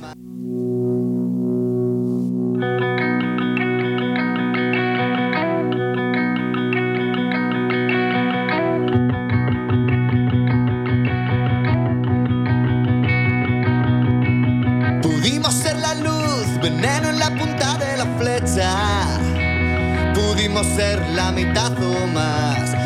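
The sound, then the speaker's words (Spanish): A band's new rock song from its upcoming album plays loudly and steadily, with heavily effected, distorted guitars over a sustained, dense backing that swells after a brief sparse opening and grows brighter and fuller partway through. “escuchamos … de su último disco que está por salir, …”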